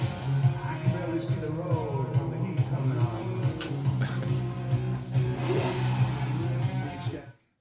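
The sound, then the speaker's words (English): A Lamborghini sports car engine revs loudly and steadily for several seconds, a deep sustained roar with rising and falling pitch, dominant, ending abruptly. “revved his Lamborghini.”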